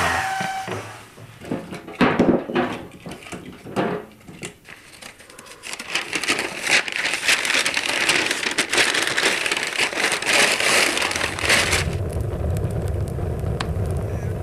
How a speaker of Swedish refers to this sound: Under vinterhalvåret hör en brasa i kaminen till de viktigaste dagsrutinerna.